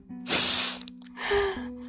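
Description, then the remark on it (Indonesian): A voice imitates sniffing with two loud, breathy sniffs into the microphone, separated by a short pause, and a low steady hum underneath. “Oleh karena itu, aku mengendus. Mengendus.”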